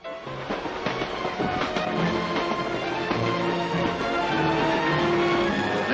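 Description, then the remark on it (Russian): A train carrying Nikita Khrushchev to San Francisco rolls steadily along the rails, with continuous rumbling and repeated metallic clacks and squeals, loud and unbroken for the whole stretch, with no voices. “следующее утро Никита Сергеевич Хрущев выехал поездом в Сан-Франциско.”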